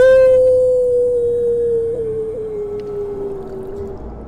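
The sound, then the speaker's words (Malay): A single long dog howl at night, loud, holding a steady tone that sinks slowly in pitch over about four seconds, with no talking. “Suasana pada malam itu Lebih menyeramkan Bertambah seram Bertambah menjadi lebih suram Dengan apabila Anjing punya salakan ni berbunyi dan bunyi anjing punya salakan ini semakin lama semakin kuat kedengaran.”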